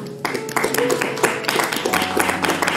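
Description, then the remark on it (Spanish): An audience at a church service applauds steadily, giving an applause to the King, many hands clapping at once in a dense, continuous patter, with a faint low tone or voices humming underneath. “Esto le da un aplauso al rey.”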